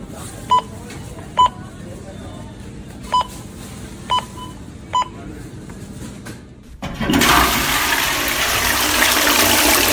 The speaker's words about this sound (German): Reinigungsmaschine, wo, wo irgendeinen Ton macht. Starte Reinigung. Starten Reinigung.